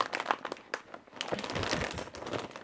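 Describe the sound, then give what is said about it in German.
Irregular crinkling and rustling of a plastic bag being worked open, a steady stream of crackly bursts with no talking over it. “blöde Tüte aufzumachen”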